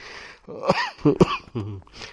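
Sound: coughing and throat clearing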